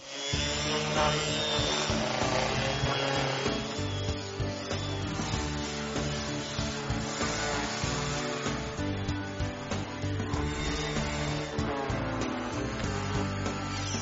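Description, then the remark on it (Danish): An orbital sander sands a wooden table, a steady buzzing motor whine layered with a gritty rasp that holds at an even level throughout, with no talking. “jeg bruger en rystepusser, så får jeg en pænere ensartet slipning, frem for hvis jeg skulle gøre det i hænderne, så er det også lidt nemmere.”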